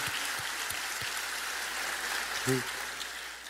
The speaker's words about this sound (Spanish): Yo quiero felicitarles y vamos a hacer un aplauso muy fuerte para toda la gente. Yo les aplaudo esta mañana.